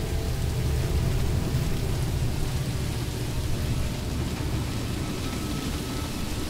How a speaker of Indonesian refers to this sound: Gerimis yang tadinya kecil sekarang perlahan bertambah deras.